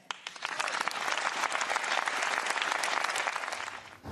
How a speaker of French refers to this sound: Marine Le Pen, vivement applaudie par les siens, par les députés LR et aussi, on ne les voit pas à l'image, par une dizaine de députés de la majorité, Modem et Horizon